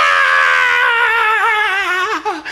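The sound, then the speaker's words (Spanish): A man's voice imitates how he screamed in panic while his baby daughter was being born, with doctors and nurses present: one long, loud cry that wavers and trembles as it slowly drops in pitch, ending in a few shaky breaks, with no other talk. “Y Miriam, Miriam orando y yo chillando, Cuando empezó a salir esa niña, yo decía, ah, Me dio un miedo, decía, métanla otra vez, por favor.”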